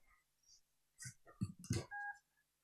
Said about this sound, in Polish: Ja postaram się tu przybliżyć telefon, żeby to było słyszalne. Okej. Okay. Ale będzie coś takiego, takie ciche piknięcie.